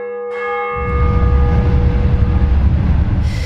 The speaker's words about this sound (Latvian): No pļaviņa apkaimē raksturīgā dolomīta celtajai Svētā Pētera baznīcai jāsadzīvo gan ar pārsimt metru attālumā donošajiem kravas vilcieniem, gan reizums pavasaros arī ar ledus spridzināšanu turpat blakus Daugavā.